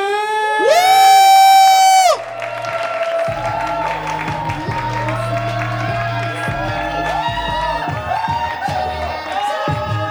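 An audience at a stand-up comedy show breaks into cheering and applause to welcome a performer, opening with a loud, high, sustained whoop, then a steady roar of clapping, shouts and scattered whistles that carries on throughout.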